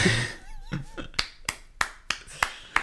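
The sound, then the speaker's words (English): Sharp hand claps from a single person, about seven in an uneven rhythm. A brief burst of laughter or vocal sound comes just before the first claps. “You just tried to applaud them.”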